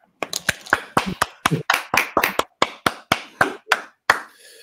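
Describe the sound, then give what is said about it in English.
Applause made of sharp, distinct hand claps, roughly eighteen of them in quick, slightly uneven rhythm, loud and crisp, with faint voice sounds between some of the claps. “Uh, Round of uh, applause.”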